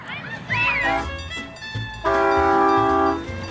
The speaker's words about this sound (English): Well, looks like they have a full train today at the Milwaukee County Zoo. With a Christmas tree in the back. So cute.